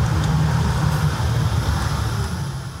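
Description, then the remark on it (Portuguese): A forklift engine rumbles steadily inside a busy, bustling wholesale market where people carry goods around, a low, continuous droning hum that holds at an even loudness throughout, with a faint wash of background noise behind it. “Tá frenético, a gente carregando uma coisa pra cá, empilhadeira pra lá.”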